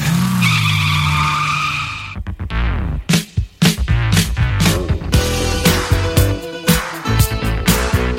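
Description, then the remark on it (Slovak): An old Škoda car engine whirs and cranks, then roars to life with a loud revving drone, followed by sharp bursts and a rhythmic, music-like pattern of beats. “Takže takto niekedy štartovali škodovečky.”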